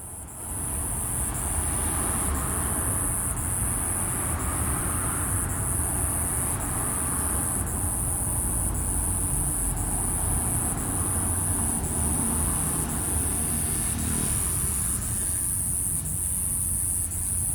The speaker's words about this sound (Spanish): ahora lo retoma desde Oaxaca y nos presenta el sonido de una chicharra que zumba. Esto lo capturó en este octubre de 2021, así que si estamos listos en la producción, vamos con esta postal sonora.